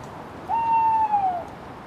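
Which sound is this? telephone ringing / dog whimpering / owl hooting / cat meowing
owl hooting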